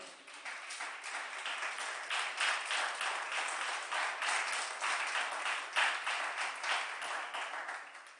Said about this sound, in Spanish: Dale un fuerte aplauso al Señor, Él es bueno.